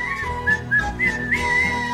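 A person whistles a bright, loud tune in a string of short, sliding notes, set over steady backing music with no talking.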